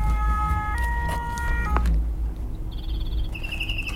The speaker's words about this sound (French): Les pompiers. Eh les camions de pompiers, ça t'aime bien les camions de pompiers, hein